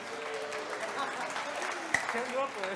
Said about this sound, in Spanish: Este, no, en serio, ¿alguien, alguien, quiere, ¿alguien quiere pasar? Pásale, pásale un aplauso